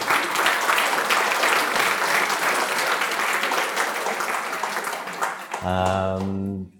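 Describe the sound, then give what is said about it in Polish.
An audience applauds the gamblers who took part in research studies, a dense, steady wash of many hands clapping for several seconds before the clapping stops and a man's voice begins speaking. “bardzo dziękuję każdej z tych osób, która w tych badaniach wzięła udział i proszę Państwa też o brawa e, dla tych ludzi.”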